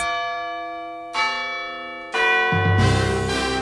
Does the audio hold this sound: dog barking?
no